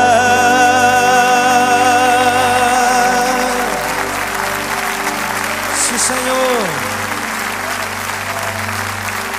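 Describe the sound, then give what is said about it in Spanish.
An audience claps steadily for God after a worship song, a loud, sustained wash of applause, with sustained musical tones underneath and a voice speaking briefly over it. “Évele fuerte ese aplauso a Él.”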